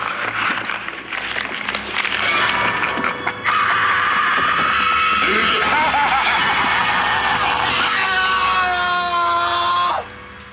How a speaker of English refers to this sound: It is Jesse for sure. What a scream. I would definitely say, what a scream. What a scream.